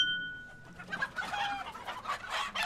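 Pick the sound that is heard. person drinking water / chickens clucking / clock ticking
chickens clucking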